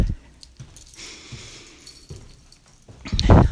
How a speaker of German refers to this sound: Gott, möchte die Treppen hochsteigen. Mit Einkäufen bepackt. Mein Schlüssel klappert.